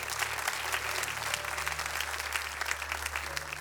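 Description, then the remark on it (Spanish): An audience claps steadily for the word of God, dense overlapping applause holding at an even loudness throughout with a faint low hum underneath. “Le da un fuerte aplauso a la palabra de Dios en el día de hoy.”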